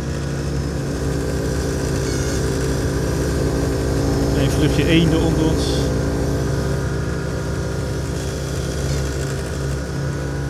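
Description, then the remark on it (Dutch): A steady, droning aircraft engine roar inside the cabin fills the whole recording at a constant loud level, with a low rumbling hum and layered harmonic tones, while a person speaks briefly over it. The plane is flying measurement lines and is approaching Meppel. “Met het vliegtuig zijn we daar natuurlijk in de overwenk overheen.”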